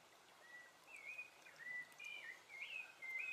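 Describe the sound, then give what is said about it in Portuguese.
A steady wash of flowing water fills the background while several thin, whistling bird calls rise and fall over it in short phrases, gentle, with no voices. “Se imagine no lugar de sua preferência, que possa conter esse som das águas, do canto dos pássaros, um lugar de conforto.”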